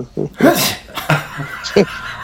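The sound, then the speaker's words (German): A single loud sneeze bursts out with a sharp breathy hiss, followed by a few short vocal sounds and breaths. “Niest.”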